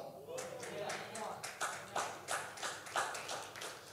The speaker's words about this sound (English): One, two, three, five people clapped.